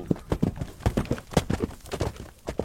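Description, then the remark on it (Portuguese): Rapid hoofbeats of a galloping horse, a steady run of sharp thuds in a driving three-beat rhythm, fairly loud with no voices. “e o galope dali para casa, eu não sentia nem o pelo do cavalo.”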